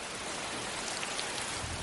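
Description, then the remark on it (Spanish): Steady rain patters against a glass pane, a dense, even hiss of drops that continues unbroken throughout, with no voices. “La lluvia moja un cristal.”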